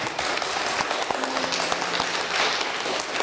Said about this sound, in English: Normally, we would bring the baby around to meet all of you, but we can't do that. So let's just give her a round of applause and show her our love.